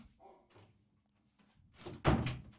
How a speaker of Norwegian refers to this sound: Gå og lukk døra eller prat med bikkja